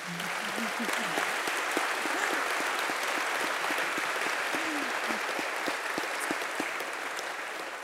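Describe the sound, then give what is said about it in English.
A crowd applauds three mothers steadily for several seconds, a dense wash of hand claps at an even loudness with a few scattered vocal sounds early on. “So, would you give these moms a round of applause, please?”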